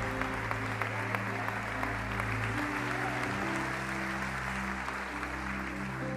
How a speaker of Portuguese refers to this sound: Você pode dar um aplauso ao Senhor aqui? Você pode dar um grito de glória a Deus aí? Você pode aplaudir forte ao Senhor, é tempo de liberar a nossa fé.